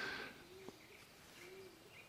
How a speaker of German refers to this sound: Ah, da haben wir eine Taube. Äh, die ähm, die, ist, ich, wirklich, weil es ein Hohltaube war, habe ich ja gerade erzählt, äh, ne, dass, dass man die regelmäßig hört. Ja, da ist er auch schon wieder.